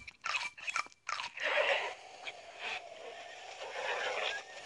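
Crunchy chewing, with a few sharp bites at the start followed by a steady stretch of noisy crunching and mastication, fairly loud and with no talking.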